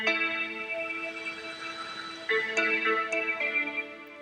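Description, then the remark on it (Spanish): A gentle alarm tone from an alarm app, relaxing music with sustained soft chords layered over a steady hissing wash of ocean waves, playing continuously at moderate volume with no voices. “Es el mar con música.”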